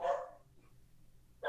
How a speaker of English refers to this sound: if you can hear, if you can hear my dog barking, he is making sure that the mail is uh is is not going to harm us in any way, shape, or form.